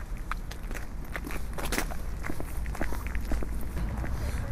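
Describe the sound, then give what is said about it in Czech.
Steady footsteps crunch along outdoors at a walking pace, each step a crisp scuffing hit over a low background rumble, with no one speaking. “je to kousek pět minut mhm, pěšky, no.”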